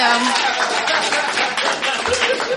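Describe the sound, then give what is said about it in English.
Audience applause: a dense, steady wash of many hands clapping at once, loud and continuous for a couple of seconds with a faint murmur of voices mixed in. “I wrote in pause for clapping.”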